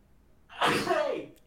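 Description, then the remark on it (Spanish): A single loud sneeze caused by allergy bursts out after a brief quiet lead-in, a sharp explosive burst that trails off with a breathy, voiced tail. “Ay, la alergia, por Dios.”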